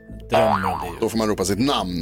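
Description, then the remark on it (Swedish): A springy cartoon boing with a wobbling, warbling pitch rings out for about half a second in a quiz game, marking that the host has finished reading the question, then someone starts talking right after it. “Det betyder att jag har läst frågan.”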